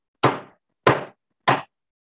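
Three heavy knocks on a wooden cabin door by a tired man, evenly spaced about two-thirds of a second apart, each a deep, resonant thud that decays quickly into silence.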